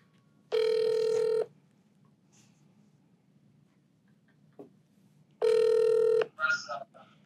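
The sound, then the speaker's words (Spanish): A phone line rings back twice while a call is being placed: two steady, buzzy tones of about a second each, separated by a long pause, followed by a brief faint murmur. “ay, llámala, llámala, llámala, llámala, llámala, llámala.”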